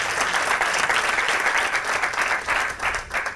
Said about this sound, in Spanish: Así que un aplauso para ellos dos, porque la verdad, muchas gracias.